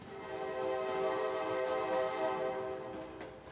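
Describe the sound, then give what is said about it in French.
A train horn blares in one long, steady blast, loud, its rich chord-like tone holding for a few seconds before easing slightly at the end, sounded by a passing train at people painting beside the railway tracks in Moscow. No one speaks. “Et quand on passe, les trains parfois nous klaxonnent parce qu'on est en train de peindre.”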